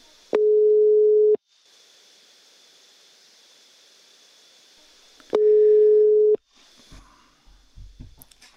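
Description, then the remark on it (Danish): A telephone rings out on the caller's end: two long, steady ringback tones separated by several seconds of faint line hiss, with no answer and no one talking, ending in a few soft clicks. “Oh, sådan rimelig svært at lave de her introer, når folk ikke tager telefonen.”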